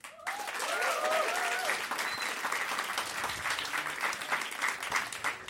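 An audience bursts into sustained applause, dense clapping for several seconds, with a few faint cheers or whistles rising near the start.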